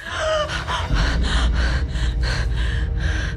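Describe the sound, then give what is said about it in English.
A voice imitates a woman's sharp, shocked gasp, followed by a rapid run of breathy, heaving intakes. It is loud, with no speech. “And she gasped for life.”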